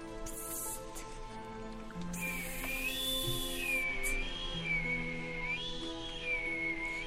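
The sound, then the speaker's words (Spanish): A faint, soft high whistle comes from inside a pile of shoes, rising and dipping in gentle waves, starting partway through and continuing to the end over a quiet, steady background hum. “Un silbidito casi imperceptible se coló desde el interior de la pila de zapatos, pendientes hasta los oídos cansados del zapatero.”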